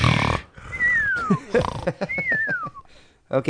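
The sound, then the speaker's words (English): A voice imitates cartoon snoring: gruff, snorting inhales alternate with two long, high whistles that slide downward in pitch, fairly loud and without any words. “Why don't you just be like not now and then just roll over and do that fake snoring?”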